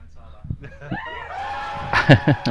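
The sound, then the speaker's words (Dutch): One voice imitates a team's excited screaming and cheering: rising and warbling whoops that break into a few loud, rhythmic laugh-like bursts near the end. “En eh, ik weet niet of de ramen nog eh, net in de kozijnen bleven zitten door het Doe de reactie nog eens even.”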